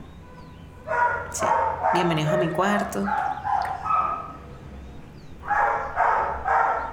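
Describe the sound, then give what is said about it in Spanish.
A dog named Oso barks loudly, a couple of sharp barks early on, then a quick run of three more after a stretch where someone speaks. “Probablemente Oso nos vaya a acompañar como cortina de sonido durante un buen rato.”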